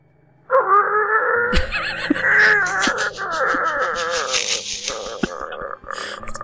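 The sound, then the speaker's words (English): A front door swings open with a long, loud wavering creak of the hinges lasting several seconds, broken by a few sharp clicks and knocks near the start and toward the end. “There is the sound of the front door opening.”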